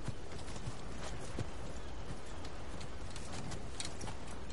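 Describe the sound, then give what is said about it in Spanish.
Horses approaching as Murtag brings them along the coast by day, hooves clopping in an irregular rhythm over a steady, hissing wash of background noise, with scattered sharp knocks and no voices. “Murtag se acerca con los caballos.”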